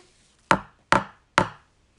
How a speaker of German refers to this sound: Ich habe sie hier direkt. Die ist eh aus ähm, Metall, aber ich kann sie mal neben euch auf den Tisch klopfen.